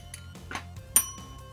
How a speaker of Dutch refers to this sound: Abonneer en druk op het belletje, zodat je meteen op de hoogte gehouden wordt op het moment dat er een nieuwe video online is. Zo. Doe je druk op het belletje dan